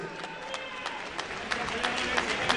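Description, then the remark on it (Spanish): A large boxing arena crowd applauds a boxer steadily, with a dense wash of claps and sharper individual hand strikes rising through a constant murmur of cheering voices. “Let's give an applause for him.”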